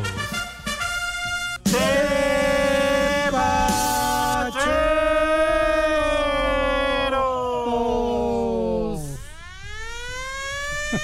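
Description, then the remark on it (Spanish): A loud civil defense siren wails continuously, its harmonic tone holding steady before dipping and sweeping back up near the end. It dominates the whole recording, with no talking. “No se quiten esa sirena, por favor.”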